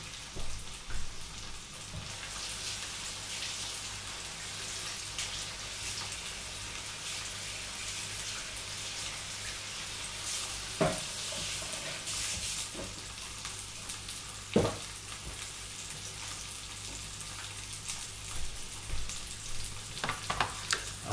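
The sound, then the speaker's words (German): Steady, crackling sizzle of a pork tenderloin searing in a hot pan, about three minutes on each side, continuous, with occasional sharper pops and faint clicks of kitchen movement; no one speaks. “Wenn das Ding heiß genug ist, dann nehmen wir das Schweinefilet und braten es von jeder Seite kurz mal für drei Minuten an.”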